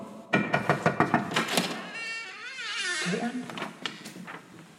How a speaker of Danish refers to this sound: Ring på. Jeg tror ikke, klokken virker. Men prøv at banke på, så.